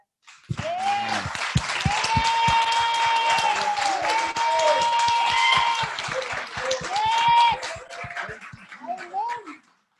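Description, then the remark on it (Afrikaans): A large church audience claps hands loudly and continuously for several seconds in praise to the Lord, with scattered whoops and voices cheering over the dense applause before it tapers off. “Ek wil hê ons moet nou op 'n regte Afrikaanse rejoicing manier wat ons by 'n konsert of 'n rugby sal wees vir die Here net 'n hande klap gee.”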